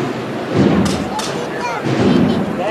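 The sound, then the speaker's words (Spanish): A few sharp metallic knocks of a hammer on the Cristo de la Expiración procession float as it is raised ring out over a steady crowd murmur, loud and percussive, with a low rumbling background throughout. “son ese martillo.”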